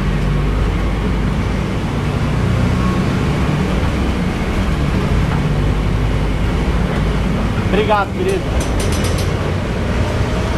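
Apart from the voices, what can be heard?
inside a moving bus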